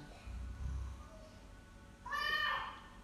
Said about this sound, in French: Voici un son de chat.